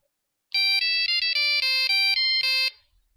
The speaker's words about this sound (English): they get re- reunited because uh, of the ringtone, and I'll play the ringtone right now.